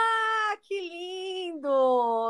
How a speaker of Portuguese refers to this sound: Aê, ah, ele, é, o gato, ele cantando aí, ó, gato.